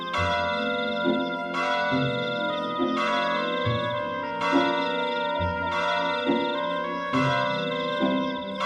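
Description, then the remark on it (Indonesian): A large bell in the distance tolls ten times at a slow, steady pace, each rich, ringing strike overlapping the lingering hum of the last, with no voices. “Lonceng di kejauhan terdengar berbunyi sepuluh kali.”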